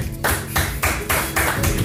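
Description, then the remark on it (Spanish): Brief applause of steady, rhythmic clapping, about six loud bursts spaced evenly, with no one talking over it. “se merece, un aplauso.”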